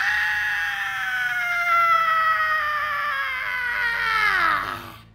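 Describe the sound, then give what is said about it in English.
A woman lets out one long, loud, piercing scream that holds for several seconds, sliding slowly downward in pitch before cutting off abruptly. No other sounds accompany it. “The insane woman started screaming like a mental patient.”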